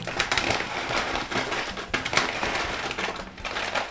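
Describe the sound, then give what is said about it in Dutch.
Oats are sprinkled over a slice of bread to make homemade oat sprinkles. They make a steady, dry pattering and rustling crackle that continues for several seconds at moderate loudness, with no talking. “Eerst de havermout zelf strooi ik over die boterham.”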